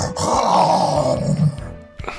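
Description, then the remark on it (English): A person imitates a tiger's roar with a single loud, sustained, gravelly growl lasting over a second, then trailing off into a brief breathy noise. “I was going for like a like a tiger roar, like an MGM thing.”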